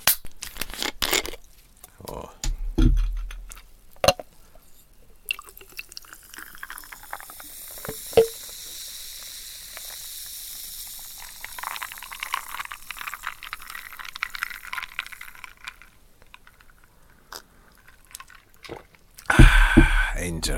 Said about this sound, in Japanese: さて、あれ、トニックウォーター、あったトニックウォーター、新しいトニックウォーターを開けます。